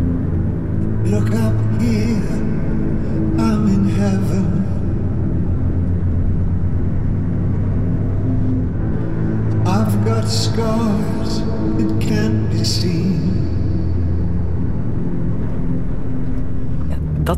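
Dark, brooding music from Twin Peaks, behind a black-and-white scene of the bad Cooper driving through a dark landscape, over a deep, steady drone, with the same two menacing chords as Chopin swelling up twice, once early and once near the middle, loud and filling the space.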